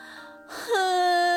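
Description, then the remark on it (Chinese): A voice playing a crying tree in a children's story breaks into a crying wail: a breathy onset slides up into a loud, sustained, quavering moan held at a steady pitch. “哼哼，啊，竟然是树哭了起来。”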